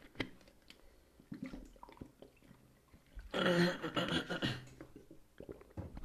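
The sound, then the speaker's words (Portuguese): Someone drinks water: quiet shuffling and small wet sounds, then about a second of louder gulping and swallowing midway, followed by soft clicks and handling noise. “Pera, vou beber água, pera, dê-me dois segundos”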